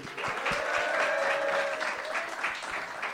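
A crowd applauds steadily for a few seconds, dense clapping with sustained whoops and cheers rising above it, as an illustrator is welcomed on stage.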